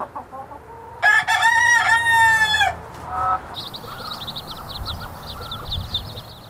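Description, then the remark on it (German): A rooster lets out one loud, drawn-out crow, followed by a steady run of rapid, high clucking from chickens pecking in the wild greenery by the disused railway tracks of the station in Groß-Bieberau in the Odenwald, over a faint outdoor background hum. “Hühner picken im wilden Grün an den stillgelegten Gleisen des Bahnhofs der Gemeinde Groß-Bieberau im Odenwald.”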